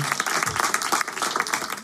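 An audience applauds an intern coming on stage, steadily, a dense wash of many hands clapping at once with a few sharper individual claps standing out, sustained at an even loudness throughout.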